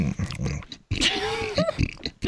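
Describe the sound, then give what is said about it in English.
A person mimics closed-mouth chewing with a continuous run of wet smacks, squelches and little bubbly pops, a few throaty, grunt-like tones mixed in, lasting about two seconds. “But when you chew with your mouth closed, like if you've got gum or something, there's a lot of like little bubbles in there”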